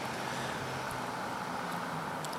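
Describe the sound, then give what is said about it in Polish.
A muffled car engine rumbles steadily as a car comes out from the left, passes in front, goes behind a low wall and drives out beyond it: a low hum over a broad wash of road noise, moderately quiet and unchanging throughout, with no one speaking. “jest kawałek muru, za którym za chwilę będzie przejeżdżał samochód”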